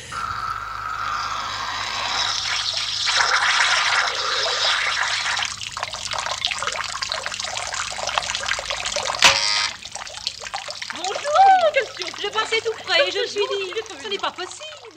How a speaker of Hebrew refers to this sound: רק תסביר למאזיננו, למי שלא ראה, שזה מזרקה כזאת של מין כמו דג דג מכוער ביותר, ש... ש... זקור ש... כלפי זקור, מעלה. זקור, שעושה מין מזרקת שפריץ די מגוחכת, שעושה רעש נוראי.